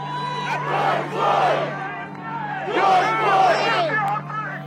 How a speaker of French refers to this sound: Dehors, la foule découvre le verdict. Un homme leur annonce en criant dans un mégaphone Guilty, coupable. Aussitôt, l'inquiétude est remplacée par des cris de joie et des embrassades.